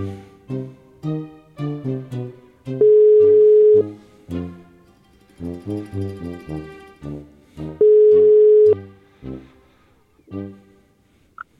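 outgoing call ringing tone

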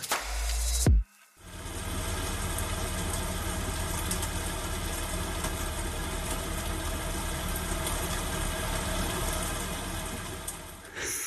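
rain falling

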